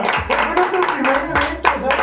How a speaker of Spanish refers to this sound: La neta, somos unos chingones todos. Aplausos.